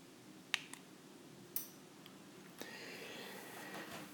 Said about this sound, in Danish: Det første klik var mig, der trykkede på knappen, og det næste klik, det næste klik var en bekræftelse i, at mit, mit tv det tændte.